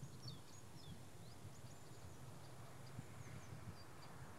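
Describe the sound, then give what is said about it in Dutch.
A woodpecker calls faintly in the distance in an orchard amid scattered high chirps, carried over a steady outdoor background of wind and low rumble, with no one speaking. “Specht in de verte.”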